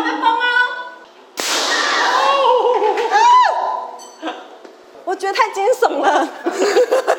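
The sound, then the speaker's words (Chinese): One sudden, loud bang from a rice puff popping machine, operated by visitors themselves at Xinfeng Farm to pop cold-spring rice, bursts out after a stretch of high-pitched vocalizing, followed by shrieks, excited exclamations and laughter from several people. “砰！手忙腳亂自己動手爆米香”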